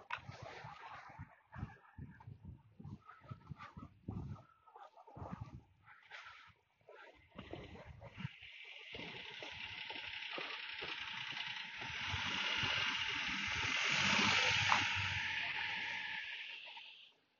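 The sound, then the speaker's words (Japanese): A car passes by outside, its steady road noise swelling gradually to a peak and then fading away. Scattered soft knocks and rustles come before it, with no voices. “で、こう、25秒開けた間に車が通りましたけど、車は無音にカウントされるんでしょうかね。”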